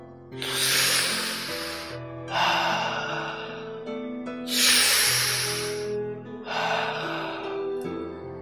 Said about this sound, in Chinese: 不久，杰瑞不哭了，按照妈妈教他的方法，深呼吸了两次。